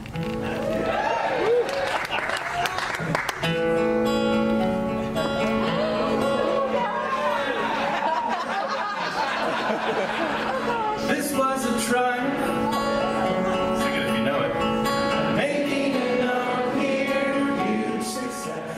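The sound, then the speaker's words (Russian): A large concert crowd sings along loudly with a live performance of a song from a video game, many voices blending over the band, with cheering and clapping mixed in throughout. “Вы слышите? Зал подпевает. Зал подпевает песню из видеоигры.”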